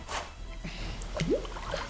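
Water gushes and splashes steadily from a burst pipe, a constant wet hiss with small sloshing bursts and a brief rising squeak partway through.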